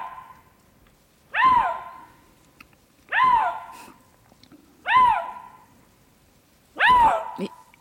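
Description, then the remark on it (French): A lynx calls four times at an even pace, each a loud, hoarse, wavering cry that bends upward then falls, separated by short pauses of quiet. No one speaks. “Euh, en fait, le lynx, c'est un animal très, très, très silencieux hein, la plupart du temps.”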